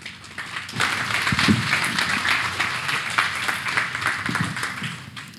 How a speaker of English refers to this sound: As they each come up, I just ask that you guys would give them a round of applause.